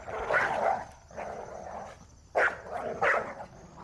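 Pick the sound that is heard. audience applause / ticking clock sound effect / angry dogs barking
angry dogs barking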